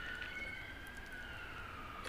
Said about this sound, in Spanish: Alarma, digo, este, sirena.